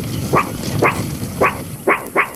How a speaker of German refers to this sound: Ist das so, so, so, so ein elektrischer Hund? Na, erkenne ich sofort.